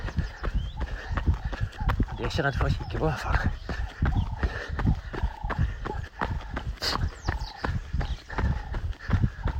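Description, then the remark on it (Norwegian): Four sheep, each tethered by a rope around a foot, trot past on a hard road, their hooves making a steady run of sharp clip-clop taps throughout, while a person speaks over the sound. “Sauene som springer forbi fire nå, de har bare vunnet et tau rundt foten og så en pole i bakken.”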